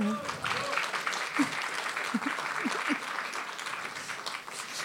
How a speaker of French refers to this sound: Toi aussi, tu as une super actu. Tu as eu ta première euh, chronique dans Causeur aujourd'hui. Oui. Ça, faut l'applaudir quand même.